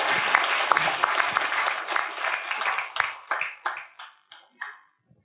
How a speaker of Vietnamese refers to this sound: nên chúng ta rất vinh hạnh ngày hôm nay ông đến cùng chúng ta nên xin cầu thánh chúng ta vỗ tay chào mừng ông